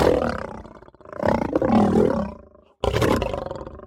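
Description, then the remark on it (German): A lion roars, a deep, rumbling bellow that swells and fades, breaks off into a brief silence, then erupts again with another loud roar. “Das ist in dieser Woche der Löwe.”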